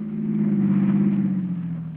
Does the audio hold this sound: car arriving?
yes